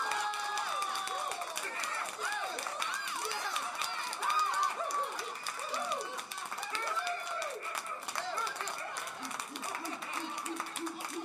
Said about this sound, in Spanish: Sí, nada, nos falta poner la de el pavo y el burro.